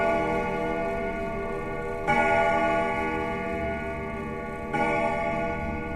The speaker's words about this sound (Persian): خوابم برده بود تا اینکه صدای دینگ دینگ از تو خونه اومد نمیدونم صدای ناقوس بود صدا ساعت بود چی چی بود نفهمیدم